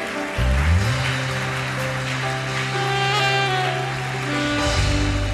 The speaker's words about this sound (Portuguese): Se você pode, aplauda o Senhor bem forte.